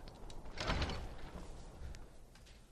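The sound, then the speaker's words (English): In a video game, a door swings open with a creaking, scraping rush that peaks early and trails into a softer rumble as the player enters the back door of the Bard's College in Solitude, with no talking. “And, uh, Go into the Bard's College back door.”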